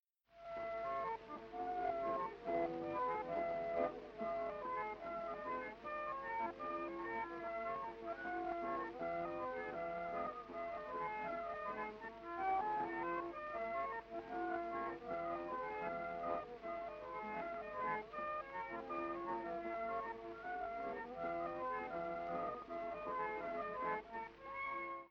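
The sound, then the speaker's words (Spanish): An early tango recording of a song, a pre-1900-style tango in 2x4 with a habanera feel and a lively, playful character, with a lively melodic instrumental line and steady rhythm, sounding thin and band-limited like an old record, playing continuously at even volume with no voices. “Un ejemplo de ello es …, que escucharemos a continuación para que mm, escuchen los tangos de antes de 1900.”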